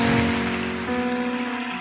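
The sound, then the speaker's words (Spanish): A church audience applauding loudly for God, a dense, steady patter of many hands clapping at once, with a sustained musical chord humming underneath for the whole short stretch. “Aplauda fuerte a Dios.”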